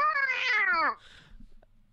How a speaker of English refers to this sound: Wait, I'm gonna squeeze. I'm gonna squeeze my cat's tail. Wait.